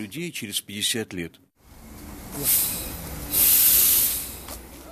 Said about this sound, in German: Bielomosk der Zug ist auf die Minute pünktlich und hatte mich ausgespuckt und nun stehe ich ziemlich hilflos vor dem kleinen Bahnhof.